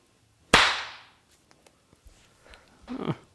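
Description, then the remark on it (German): One sharp, loud hand clap by a single person clapping alone rings out and decays quickly, followed by a few faint ticks and a brief, softer rustling burst near the end. “Ich komme mir einfach so lächerlich vor, wenn ich immer so allein immer einmal in die Hand klatsche.”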